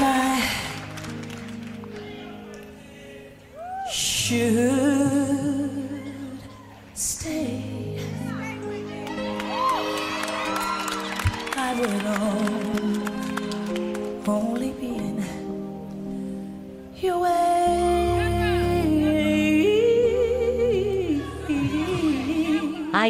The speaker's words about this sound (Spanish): vamos a poner un poquito de, la versión de … que también está muy guay